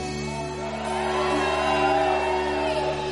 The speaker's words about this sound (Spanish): Yo voy a decir algo y necesito que toda la gente grite como nunca.